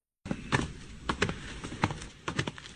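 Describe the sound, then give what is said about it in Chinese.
Hurried footsteps of two people climbing stairs, one following close behind the other, a quick, uneven series of hard thuds, some landing in close pairs, with no voices over them. “急步登楼，于西紧追在钟离后面。”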